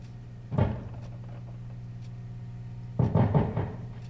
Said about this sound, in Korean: 그리고 그를 닮은 공간에서 그 그는 손수 레코드판을 골라 묵직한 기계 위에 올려놓습니다. 그 이제 이렇게 올려놓으면 예전엔 턴테이블에 이렇게 올려놓으면은